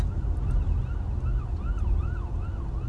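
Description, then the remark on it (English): An ambulance siren wails in quick rising-and-falling sweeps as the ambulance comes through city traffic, over a heavy rumble of traffic and wind noise. No one speaks. “Oh, it's an ambulance. Can you hear that?”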